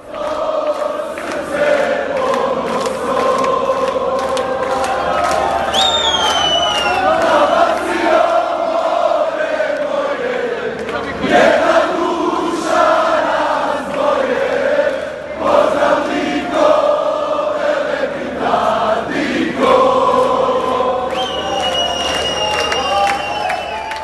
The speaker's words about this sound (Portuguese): Vamos colocar também a torcida da Croácia na saída do estádio, lá, lá, lá na saída do Lujniki ainda, comemorando.